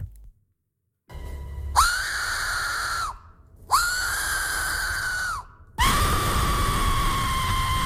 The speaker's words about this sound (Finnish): toisen maailmansodan aikainen ilmahälytys sireen.